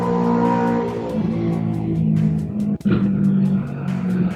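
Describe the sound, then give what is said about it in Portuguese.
A car engine revs loudly and steadily, its low harmonic drone rising and falling, with a brief dip and gear-shift-like break near the end before the roar resumes. “É o mesmo é motor. O mesmo. É o tá mesmo motor.”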